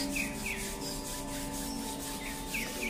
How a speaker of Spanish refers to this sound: Con nuestras palmas hacemos el fueguito del corazón, frotamos nuestras manos